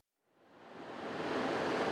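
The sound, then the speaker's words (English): Ocean surf rushes in at a beach in Encinitas where surfers are catching waves, a broad hissing wash of waves that swells up from silence and grows steadily louder, with no voices over it. “Surfer Tom Cook and I stand on a beach in Encinitas where other surfers are catching plenty of waves.”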